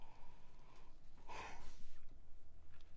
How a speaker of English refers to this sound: looking at the roadmap, and I am yawning. Um, oh, I need to close this. Um, looking at the roadmap, I'm yawning because I was running around all morning for this equipment that I that I'm trying out right now, hoping it works.